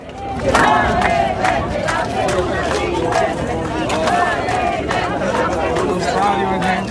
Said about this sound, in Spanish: Aquí, por ejemplo, los oímos protestar contra un proyecto de Roma para crear un gran campamento con tiendas de campaña para identificar a los migrantes.